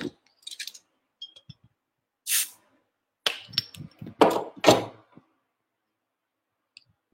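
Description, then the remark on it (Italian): A bottle of Mastri Birrai Umbri Bio craft beer, an organic pale special beer with wheat malt, being opened: scattered small clicks, a short hissing burst, then a cluster of clinking, rattling handling noises and two sharp fizzy bursts before it falls quiet. “Allora, io direi di iniziare ad aprire questa birra che si, sta, si, è già scaldata fin troppo.”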